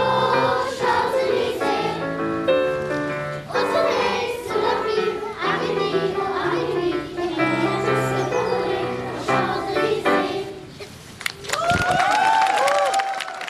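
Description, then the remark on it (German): About 70 children from the choirs of the Protestant parishes St. Paul, St. Michael and Heiliggeistkirche in Fürth sing a sustained, melodic passage at a small sunny concert in the Dr. Konrad Adenauer Anlage; in the last couple of seconds loud applause breaks out, mixed with cheering and a few high whoops. “Großer Applaus für die 70 Kinder aus den Chören der Fürther evangelischen Gemeinden St.”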